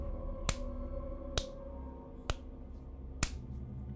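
An object slaps into a palm four times at a slow, steady pace, each smack crisp and dry, over a low, sustained droning background.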